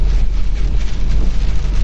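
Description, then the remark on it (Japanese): Dense, steady pattering of hail-like snow grains pelting a car driving on Route 8 from Joetsu, Niigata, Japan, in a violent snowstorm with strong gusts, mixed with a heavy low rumble of wind and road noise, loud and continuous throughout with no voices. “雪の粒もね、もうなんかあられみたいなのがバチバチ当たってるような感じで、ところどころすごい風が強いです。”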